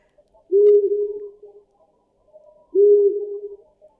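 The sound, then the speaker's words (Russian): A long-eared owl gives mating calls, two low, drawn-out hoots spaced a couple of seconds apart, clear against a quiet night background with no talking. “А у нас уже ушастая става, насколько я понимаю, нам уже...”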